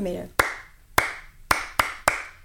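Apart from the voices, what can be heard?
rhythmic hand clapping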